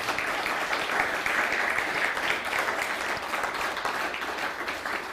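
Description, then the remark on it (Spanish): An audience applauds the Almighty steadily, a dense wash of many hands clapping at an even, sustained loudness for several seconds with no voices rising above it. “Así que dale un fuerte aplauso al Todopoderoso.”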